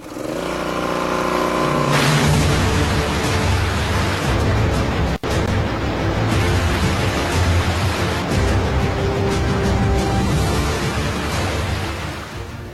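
A motor starts up and settles into a loud, steady running drone with a broad, rushing roar, like a close-by engine working continuously, with one brief dropout partway through.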